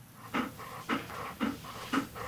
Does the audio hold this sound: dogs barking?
yes